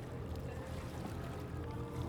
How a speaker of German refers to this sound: Der Sonntag steht im Zeichen der traditionellen Boote – die ihre Regatta entlang der Riviera austragen. Auch ein Rennen traditioneller Ruderboote findet an diesem Tag statt.